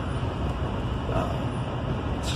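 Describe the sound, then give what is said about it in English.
Steady, enveloping low rumble of road noise inside a car driving to work, a constant droning hum with no voices and no breaks, holding at an even level throughout. “Uh, I think this episode is basically me in a car because six days a week driving to work, spending about 12 hours plus, I would say probably 13 hours when all is said and done in the car per week during this rehearsal process”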